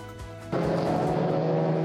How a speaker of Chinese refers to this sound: 车道上，赛车快速奔驰。上个月底在日本静冈举行的拉力赛，丰田汽车的世界首款氢燃料汽车成为全场目光焦点。